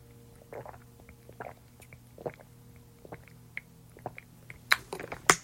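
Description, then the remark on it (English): Someone gulps water in a series of wet swallows and small mouth noises, irregular and fairly soft, over a steady low hum, with a few sharper clicks near the end. “I'm drinking water.”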